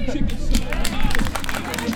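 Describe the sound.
A crowd claps for the winners of a charity cross-country race for Ukraine in a dense, continuous, loud burst of applause, with a murmur of voices and cheering mixed in beneath it.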